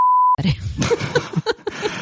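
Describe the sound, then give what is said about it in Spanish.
A steady, pure censor bleep sounds for about a third of a second over a word that cannot be said in a family-friendly conversation, cutting off abruptly before someone resumes talking. “Esto lo voy a poner un pitido, que estamos en, el, en este de familiar.”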